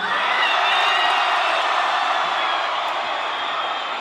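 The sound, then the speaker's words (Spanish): A large concert crowd in Puerto Rico roars with sustained cheering and applause for a performer, loud and continuous for the whole stretch, a dense wall of noise that stays steady without pausing. “Yo quiero un fuerte aplauso y una bulla”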